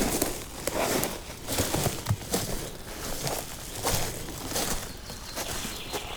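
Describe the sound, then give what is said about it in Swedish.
Footsteps crunch over dry, brittle reindeer lichen while walking down along rock slabs, in a steady walking rhythm, each step a crisp, crackly rustle at moderate loudness with no talking. “Knaprig renlav.”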